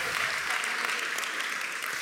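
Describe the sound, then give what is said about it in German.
A church audience applauds the sound technician before a sermon, a dense wash of many hands clapping at once, loud and sustained for the full couple of seconds without any break or voices standing out. “ein riesen Applaus Wow, wirklich Hammer.”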